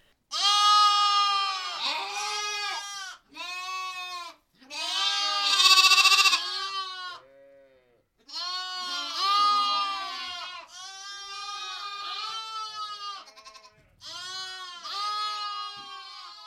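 animal, lambs bleating

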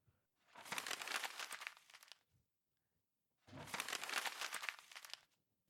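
household object, paper being crumpled

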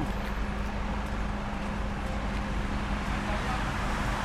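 vehicle, road traffic

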